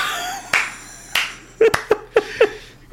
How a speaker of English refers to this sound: you get your own slow clap from me.